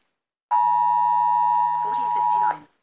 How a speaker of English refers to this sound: Fi is going to show you what the emergency alert sounded like in the wild when it went off